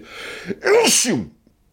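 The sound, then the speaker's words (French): A sharp breath in, then one loud sneeze with a voiced, drawn-out burst that quickly fades to quiet. “je sens que je vais éternuer.”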